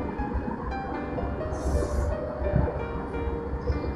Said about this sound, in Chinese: 坐标飞往成都的飞机上，身边大部分人已经熟睡，我不敢发出太大的声音，怕把别人吵醒。婴儿的啼哭，飞机轰隆隆的声音，